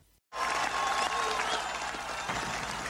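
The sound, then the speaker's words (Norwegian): An audience, heard just before Ronald Reagan's 'Mr. Gorbachev, tear down this wall' address, bursts into loud, sustained applause after a brief silence, a dense wash of clapping that holds steady for a few seconds. “Først hørte vi publikum, ja.”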